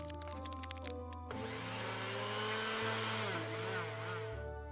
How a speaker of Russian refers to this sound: Так, добавьте муку и масло и взбивайте на самой высокой скорости в течение одной минуты. Сколько масла и муки? М, полтора стакана муки, 4 чайных ложки масла.